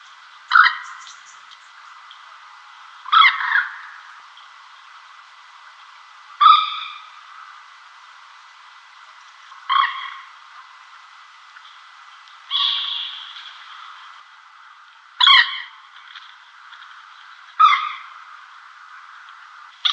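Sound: common moorhen calls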